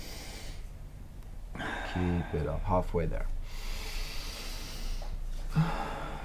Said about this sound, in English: Finding your rhythm. Keeping the physical body relaxed. Really good. All the way in. fully in and let it go. Breathing in.